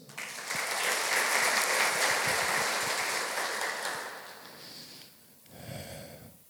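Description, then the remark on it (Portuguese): A crowd applauding the Lord breaks into steady, dense applause that holds for several seconds, then thins out and fades, with a brief voice rising just after the clapping dies down. “Pode aplaudir o Senhor.”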